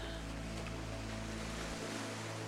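A steady, continuous wash of ocean waves fills the background, with a low, even hum running beneath it. No one speaks, and the sound stays constant throughout.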